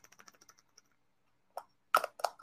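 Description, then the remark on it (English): A quick run of light, dry clicks, then a few louder rattling bursts as full-spectrum hemp gummies are shaken inside a container held in the hand, with no talking. “I can shake it and you can hear them.”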